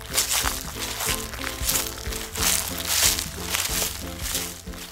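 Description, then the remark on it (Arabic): Dry rustling and crinkling from behind the trees, like leaves or brush being disturbed, comes in repeated bursts over a steady musical background for the whole stretch. “فجأة سمع صوت خشخشة من وراء الأشجار”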